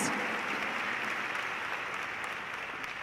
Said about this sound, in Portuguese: Pode dar uma salva de palmas.